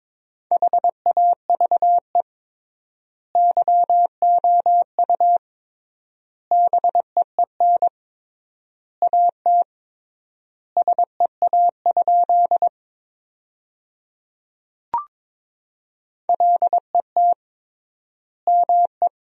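A steady, mid-pitched Morse code tone keys sentences built from the 300 most common words at 22 words per minute with triple word spacing, rapid dots and dashes in clustered bursts separated by clear pauses, with a single soft pop partway through and no voices.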